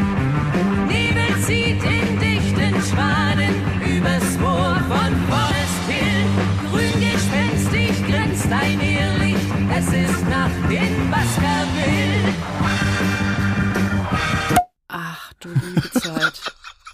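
A German-language heavy rock cover song recorded in 1970 plays loud and dense, driving band with a strained, wailing male vocal for about fourteen seconds before abruptly cutting off, leaving brief scattered noises.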